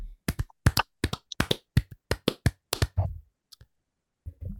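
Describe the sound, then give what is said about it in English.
A quick run of sharp hand claps marking the end of a Disneyland attraction ranking bracket, about a dozen in close succession at a steady, lively pace, then tapering off into a couple of softer, scattered sounds. “And as we do at the end of every bracket, we're going to clap it out.”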